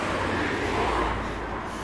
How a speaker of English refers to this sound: And so a lot of people are staying inside, although I am still surprised to see so many cars passing me by. I guess it's also due to the weather because we are a country of bikes, as you know.